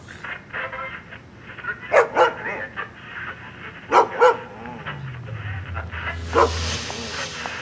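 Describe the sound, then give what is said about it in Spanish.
A dog barks in short pairs of sharp woofs spaced a couple of seconds apart, with a steady hiss and a low droning tone underneath toward the end. “¡Cállate, Max!”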